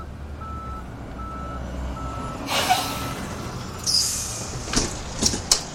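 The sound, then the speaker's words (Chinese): A large bus rumbles low as it pulls up outside, with hissing bursts of air brakes and a thin, high-pitched reversing beep cutting through. No one speaks. “外头开来了一辆大巴士。”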